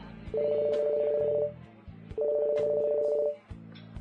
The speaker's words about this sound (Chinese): 王厅长的电话，此时也响了起来。